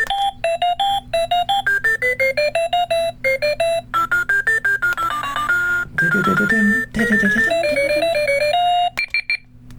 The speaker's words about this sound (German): So, der unterste Knopf, der spielt die Wegzeitmelodien ab. Da kann ich dann also, wenn ich will, mich mit einer Melodie wecken lassen. Und auch die hier.